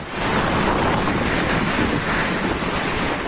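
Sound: strong gusting wind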